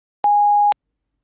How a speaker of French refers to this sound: Merci de laisser votre message après le bip.